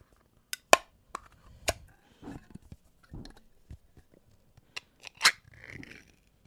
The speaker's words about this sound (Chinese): 要来开罐了。